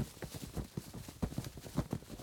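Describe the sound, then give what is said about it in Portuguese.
Steady clip-clop of a family's horse trotting at a quick, even rhythm as its rider sets off to join the emperor's army, each hoof strike a crisp knock over a soft rustling background. “Ela montou no cavalo de sua família e foi ao encontro do exército do imperador.”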